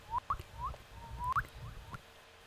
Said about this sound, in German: Ich habe hier, hab hier ein paar Vögel sitzen, weil ich ja hier im Vogelschutzgebiet äh, wohne und.